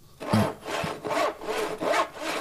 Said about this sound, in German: Wenn der Knochen nicht ganz ab ist. Ja, Knochensäge. Knochensäge. Knochensäge, Natürlich.